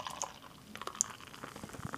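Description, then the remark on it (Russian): Sharp clicks from a can of beer, the second one, being cracked open, then a soft, uneven trickle and fizz as the beer is poured. The sounds are fairly quiet, with no voices. “Такая вот пауза на открытие пивко. Вторая баночка пошла.”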